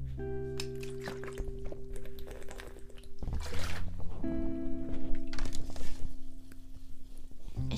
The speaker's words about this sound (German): Ich hoffe, du hast Wasser getrunken. ich habe gerade mit dir Wasser getrunken. Ich bin gerade für dich aufgestanden. Hab das Wasser geholt.